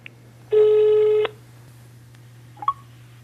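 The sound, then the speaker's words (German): A telephone line tone sounds once, loud and steady for under a second, followed by a brief faint beep, as a phone call is placed, all over a low electrical hum with no talking. “Deshalb rufe ich ihn an.”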